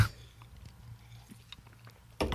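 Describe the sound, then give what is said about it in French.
Someone takes a quiet sip of a drink, with soft wet mouth clicks and a swallow, followed by a sudden louder rustling burst at the end. “Euh, je vous propose une gorgée à ça, man.”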